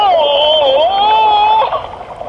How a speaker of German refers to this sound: Und jetzt, wenn ich am Boden des Beckens bin, stoße ich mich mit aller Kraft mit den Füßen ab. Dann fliege ich nach oben durchs Wasser zum Ring. Ungefähr so!